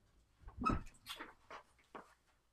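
A dog makes a short series of quiet vocal noises, a few brief whiny yelps and grumbles, with no one talking over them.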